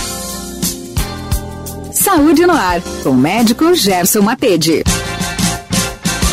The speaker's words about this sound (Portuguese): jogou a vinheta do Saúde no ar.